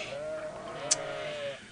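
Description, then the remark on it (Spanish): A single sheep bleats in one long, wavering call lasting over a second, clear, with a brief sharp click near the middle and no voices. “En los últimos 40 años no he hecho otra cosa sino pastorear ovejas.”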